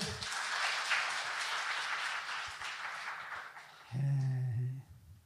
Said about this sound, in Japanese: もう一回大きな拍手